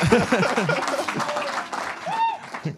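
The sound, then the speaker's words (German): A live audience claps and cheers together so listeners can hear they are there, a dense wash of applause mixed with many shouting voices and a rising, high whoop near the end. “Und ja, lasst, lasst, mal hören, damit die äh, Zuhörer auch hören, dass ihr auch da seid.”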